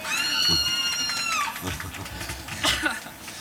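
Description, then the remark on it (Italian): A cat, addressed as Signor Mau, gives a long, drawn-out meow that slides down in pitch, followed by a shorter, sharper meow a moment later. “Signor Mau, mi perdoni.”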